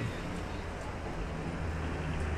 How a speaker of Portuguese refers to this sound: E o caminhão está passando